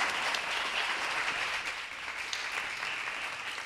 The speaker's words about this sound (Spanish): Bueno, gracias por venir. Un aplauso para la invitada de hoy.